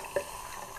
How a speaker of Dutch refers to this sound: Heet water weer, niet spetteren, please.